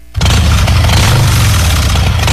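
A motorcycle engine fires up abruptly after a brief near-silence, then settles into a loud, steady, rumbling idle, with no voices.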